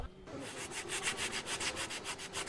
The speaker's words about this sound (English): The restorers now need only apply a finish sanding to the most distinctive feature of the columns, the fluting.